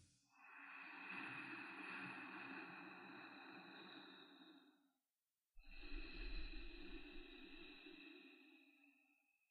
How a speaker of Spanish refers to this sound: Lento y suave abre los ojos, pero mantente enfocado enfocada en el sonido de la respiración como si fueran olas del mar. La sensación y el sonido de la respiración tiene que ser una cosa así.